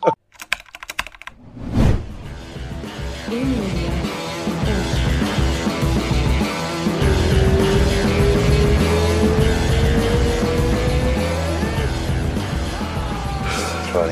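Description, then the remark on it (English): A car driven by a Brazilian man with a guest aboard drives along with a steady rumble of engine and road noise, the engine's whine rising as it accelerates, after a few sharp clicks and a thump at the start. “I'll try not to run anyone over.”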